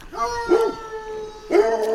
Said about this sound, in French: Et là, je sors du chemin et il y a une maison avec un chien qui aboie et il y a une dame.